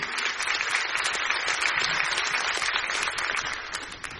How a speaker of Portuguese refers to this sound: Você pode aplaudir a Jesus e celebrar a colheita.